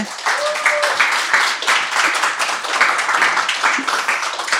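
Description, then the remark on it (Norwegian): An audience gives a short round of applause for a climate researcher being introduced, a dense crackle of many hands clapping at an even loudness for several seconds, with a brief faint whistle-like tone near the start. “Vi gir jo han en liten applaus også”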